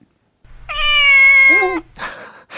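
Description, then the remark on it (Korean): During a video radio broadcast, people imitate a cute cat on cue, giving one long, sweet, drawn-out meow, fairly loud, followed by a couple of short breathy bursts that sound like giggles. “두분 저기 카메라, 보이는 라디오 카메라 봐주시고, 첫 번째 깜찍 고양이 가보겠습니다.”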